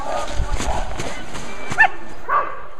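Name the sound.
sled dogs barking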